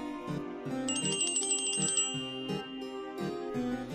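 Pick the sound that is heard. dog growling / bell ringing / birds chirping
bell ringing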